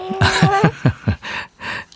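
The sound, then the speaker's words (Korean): A baby babbles and fusses in short, whiny vocal bursts with rising and falling pitch, followed by a couple of softer breathy sounds, with no one else talking. “뭐가 좀 불편한 것 같죠? 애기 옹알이 소리예요.”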